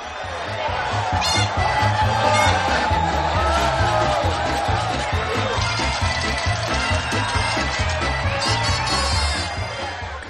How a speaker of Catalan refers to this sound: La multitud l'ovaciona.